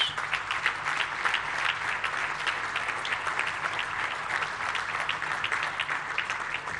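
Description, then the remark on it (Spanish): A crowd applauds public servants of the Nuevo León government and construction businesspeople, steadily for several seconds, a dense, even patter of many hands clapping at a fairly loud, constant level with no voices over it. “Un aplauso a ellos.”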